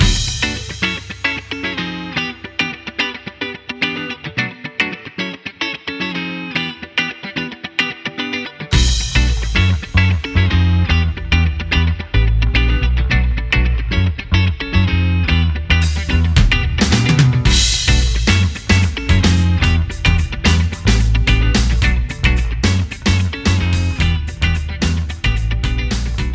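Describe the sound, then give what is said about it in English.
Instrumental intro music with a processed, effects-laden sound: a thinner opening, then a heavy bass-driven full band kicks in around nine seconds, with bright crashing accents later. No one speaks. “Okay, so that's a bunch of stuff that we did to be able to have music going, all kinds of stuff.”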